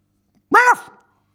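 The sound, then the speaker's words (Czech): A single short, awkward first bark of a puppy, voiced by a person imitating the sound: one brief, fairly loud yelp that wavers and trails off into silence. “Bylo to štěknutí trochu divné, ale každý začátek je těžký.”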